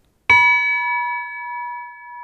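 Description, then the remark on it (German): A single strike on a small bronze bell from Francesco Piemontesi's bell collection in his apartment, at most 30 cm high and 30 kg: a sharp attack, then a clear, bright ringing tone with steady overtones that sustains and slowly fades. Heard alone, no voices. “Keine tonnenschweren Kirchenglocken, sondern maximal 30 cm hoch und 30 kg schwer, wie diese hier.”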